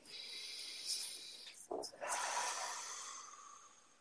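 A deep breath taken slowly during a guided breathing exercise: a long, airy inhale, a brief catch and pause, then a long hissing exhale that gradually fades, with no one speaking.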